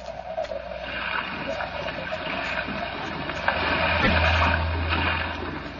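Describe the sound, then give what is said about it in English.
Rough sea water churns and washes steadily around a small fishing boat as the wind blows hard, a dense rushing that swells slightly midway, with a low droning rumble underneath in the second half. “I'm not much of a sailor, and as the wind was blowing hard and the sea racing, I'm afraid I wasn't a very intelligent companion.”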